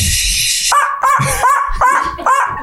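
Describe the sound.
A person imitates a small dog, letting out about five quick, high yapping barks in a steady rhythm, fairly loud, after a short burst of hissy noise.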